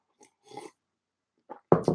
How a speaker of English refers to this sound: pardon me let me get a, a quick sip